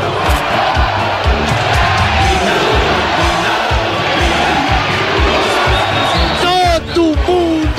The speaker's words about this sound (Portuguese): de pé batendo palmas e aplaudindo. Guerreiro Caprini, o Guerreiro Caprini, camisa número 11.